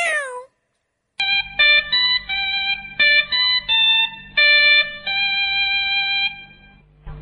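A single short meow sweeps downward in pitch, then after a brief silence a bright, steady electronic jingle plays a stepping melody of clear tones. No one speaks.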